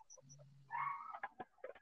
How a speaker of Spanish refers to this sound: Sí, del perrito que también viene de, otra dimensión a molestar el podcast. A dar su opinión, yo digo que, quiere, quiere participar y nos está pasando en código Morse la información verdadera del mundo.